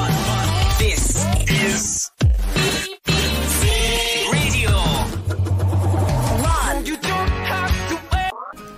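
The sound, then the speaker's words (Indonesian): A loud, busy radio intro jingle plays for several seconds, dense and punchy, cut by a few abrupt split-second stops before charging back in; it is intro/outro music used to open and close a radio broadcast. “Yang kedua, musik intro dan ekstro sebagai pembuka dan penutup siaran kayak gini nih.”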